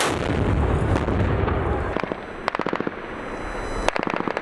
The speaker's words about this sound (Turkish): Meskun mahalledeki çatışmaların yanı sıra belirlenen hedefler obüslerle vuruldu. Rasulayn'da çatışma ve bombardıman aralıksız devam ediyor. Mehmetçik belirlenen iki hedefi obüs atışlarıyla bir bir imha etti.